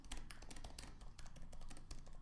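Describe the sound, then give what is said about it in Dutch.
Rapid, irregular clicking of keys on a computer keyboard, steady typing with many quick taps and no voices. “En, uh, is ondertussen het helemaal mooi aan het typen.”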